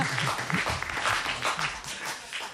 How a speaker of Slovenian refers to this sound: Jaz sem pričakoval tako, veš, aplauz, ono gromozanski.